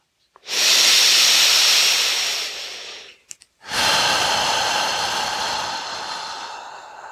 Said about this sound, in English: so let's go ahead and find the floor. On your next exhale allowing your belly to fall.